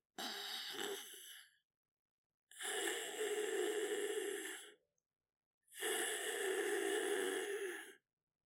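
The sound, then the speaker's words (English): A person imitates a cat breathing through its open mouth: three long, raspy, breathy exhalations, each about one to two seconds, separated by short silences, fairly loud. “Breathing through an open mouth.”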